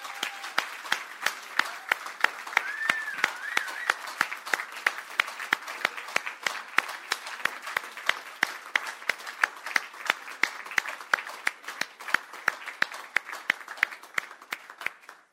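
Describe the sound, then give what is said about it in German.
Sustained applause from a church audience giving thanks to God for the year, a dense steady patter of many hands clapping for about fifteen seconds, with a few louder individual claps standing out and faint whistles or cheers mixed in. “Und ich denke, dass wir ihm jetzt erstmal einen richtig kräftigen Applaus geben für all das, was er in diesem Jahr getan hat.”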